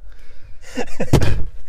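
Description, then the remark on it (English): A phone drops and lands with one sharp, loud thud, followed by a short rattling tail. A couple of brief vocal sounds come just before the impact. “What was that? Uh, I think that was my phone.”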